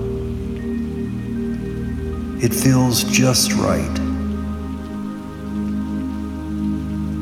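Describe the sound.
Gentle rain patters steadily on a surface throughout, a soft continuous hiss with no breaks, while a calm voice speaks briefly over it midway.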